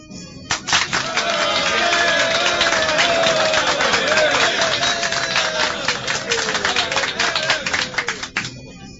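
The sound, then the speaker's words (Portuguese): A large crowd in Pompeii applauds loudly and steadily at a spectacle for about eight seconds, cheering Plínio Severus as one of the Empire's victors; dense clapping mixed with cheering voices, starting abruptly and cutting off near the end. “Uma hora depois, em pleno espetáculo, Plínio Severus é aplaudido pela população de Pompeia como um dos vitoriosos do Império.”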